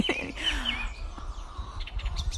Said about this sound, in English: oh, there's our hens. Hang on, come say morning to the hens. Can you hear them? They think I've got treats. That's why they're giving me a shout. We've got uh, six hens. Six hens.